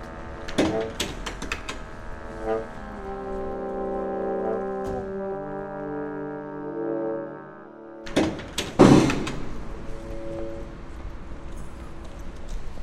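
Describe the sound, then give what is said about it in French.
Cargo ship engines drone with long, steady low horn-like tones for several seconds, broken by scattered clanks and thumps; after a brief quiet gap, a louder burst of knocks returns over the hum. “Les cargos, ok, qui laissent tourner les moteurs.”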